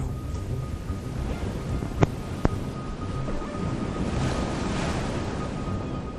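Steady wind roars over a churning open ocean on a dark night, heard while drifting at sea, a dense, unbroken wash of surf noise, with two sharp knocks cutting through briefly near the middle; no voices.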